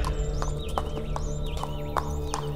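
Hooves of a small horse clip-clop at a slow, steady trot along the road to Calderón, each hoofbeat distinct, over a continuous low background hum with faint wavering high tones.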